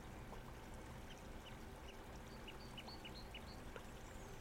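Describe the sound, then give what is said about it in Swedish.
A small brook rushes and gurgles steadily beneath a bridge among trees, a soft continuous wash of water, with a series of faint bird chirps rising above it. “Under bron så rinner en liten, liten bäck. Man hör vattnet så tydligt hur det forsar.”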